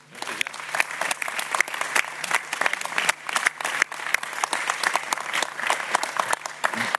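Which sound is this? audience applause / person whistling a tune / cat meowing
audience applause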